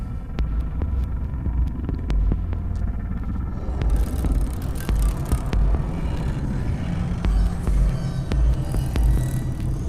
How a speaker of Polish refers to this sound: Trzeci raz z rzędu pod nasz pałac podjechał duży biały samochód.